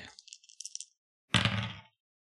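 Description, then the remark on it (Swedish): A quick, light rattle of dice shaken in a hand, then a fuller clatter as three dice tumble onto a table and settle, rolled for a game check where four or higher succeeds. Fairly loud, with no voices. “Då får du slå tre tärningar och då lyckas du på fyra eller över.”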